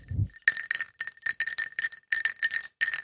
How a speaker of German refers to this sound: Man hat eben bei mir ganz leise im Hintergrund den äh, Absinth-Sprayer gehört.